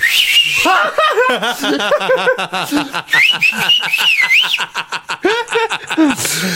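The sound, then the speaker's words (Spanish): A series of short, high human whistles, some rising and wavering, comes in quick bursts over overlapping voices and snickering laughter, fairly loud. “No es un chiflido largo, sino son varios.”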